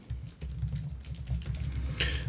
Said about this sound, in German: dann ist der irgendwie gerade am anderen Monitor am Tippen.